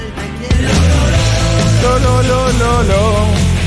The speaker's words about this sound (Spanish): Cerró con los chicos. La canción que le escribe a sus amigos que están en el cielo. Que suena así.